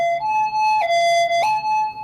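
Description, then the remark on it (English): An ambulance siren passes by, wailing in a loud two-tone pattern, alternating steadily between a lower and higher pitch with no one talking over it. “Someone call Dead. the ambulance.”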